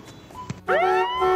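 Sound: horn blast sound effect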